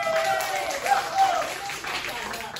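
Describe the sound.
Audience applause, a dense, steady patter of many hands clapping that lasts the whole moment at moderate loudness, with some voices mixed in underneath.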